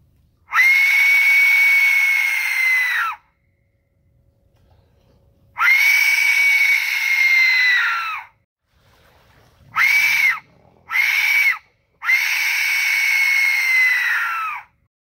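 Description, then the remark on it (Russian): Piercing, scream-like shrieks of an Aztec death whistle, made by air streams colliding inside it, loud and harsh with a rough, breathy edge: three long wailing blasts, interrupted by two short sharp bursts, with brief silences between. “Звук получается настолько громкий и пронзительный, что его слышно на расстоянии несколько километров.”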